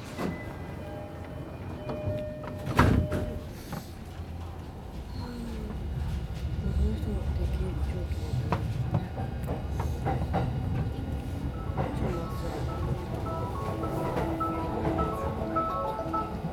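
A Tokyo metro train arriving at Shibuya station rumbles steadily along with low, continuous rattling and clatter, punctuated by a sharp, loud clunk early on and scattered metallic squeals and ticks throughout.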